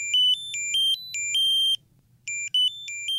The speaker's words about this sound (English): Pillsy and its smart pill bottle that sounds an alarm if you forget to take your pills. It's pretty simple. It just tracks when it's open and closed. Uh, it stores the medication schedule and then it beeps and blinks to remind if you miss a dose.